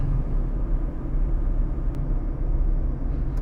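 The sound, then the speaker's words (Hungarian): A steady, deep rumble of road noise from inside a moving car, a continuous low drone with a faint brief click near the middle and no voices. “Szóval szokás szerint úton vagyok, így a navigáció, illetve a forgalom zaja beszűrődhet a monológomba, kicsit színesítve azt.”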